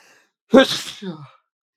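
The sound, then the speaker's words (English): A single loud sneeze bursts out sharply, then trails into a short voiced exhale, with silence on either side. “And another sneeze come in.”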